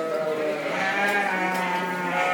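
A sheep bleats continuously in a sustained, wavering cry while its legs are being trimmed with scissors, fairly loud, with no talking over it.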